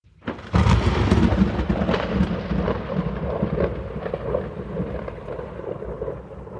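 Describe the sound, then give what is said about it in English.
A loud peal of thunder at the start of a rodeo breaks in abruptly and rumbles on heavily, its deep roll fading slowly beneath a steady hiss of falling rain, with no voices. “With a cheer from the crowd and a peal of thunder, the rodeo now began.”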